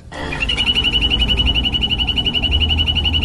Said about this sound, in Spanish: Así llama una rana dorada a la otra. Parece una ah, alarma, hola. Está chévere. Sí, las ranas doradas que habitan en el Pacífico colombiano están en el Cauca, están en, en Valle del Cauca, en Chocó.